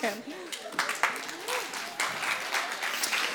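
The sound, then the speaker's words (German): A crowd applauds with steady, dense clapping that carries through the whole stretch, while faint voices and a brief cheer-like vocal rise poke through underneath. “Applaus für euch.”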